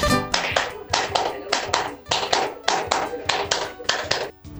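A boy in William Morris claps hands in a quick, steady rhythm, a long run of sharp, bright slaps coming in little bursts of two or three, fairly loud, with no talking over them.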